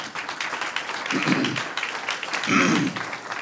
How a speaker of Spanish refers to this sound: Un aplauso al Señor.